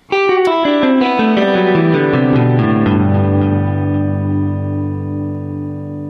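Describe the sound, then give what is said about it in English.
A guitar plays example 1 from the tablature with a touch of reverb and delay: a quick run of bright, ringing, overlapping notes that blur together, then settles into a sustained chord whose echoing tail slowly fades. “Let's make it jump out even more by adding a touch of reverb and delay.”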